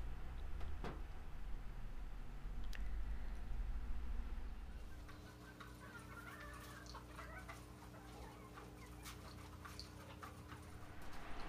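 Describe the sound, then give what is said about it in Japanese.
Chickens kept at a home cluck and chatter while being fed, in a steady, overlapping stream of short calls, with a low background rumble easing off partway through. “その間にコケコケっていうまたこれもとても心地いい鳥さんの声なので聞いてください耳を澄ましてどんな風に泣いているのか”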